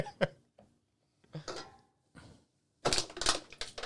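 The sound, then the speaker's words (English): Four White Claw aluminum seltzer cans being crushed, one still holding significant liquid: a few sharp crinkling cracks and crunches in separate bursts, then a louder, denser stretch of crumpling metal at the end. “his four White Claws. One of them had significant liquid still in it, and he thought he would crush them”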